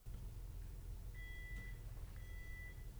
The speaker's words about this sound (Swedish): Vad som händer nu det är ju att vi har ju fått snabbstopp. Den visar ju larmet här.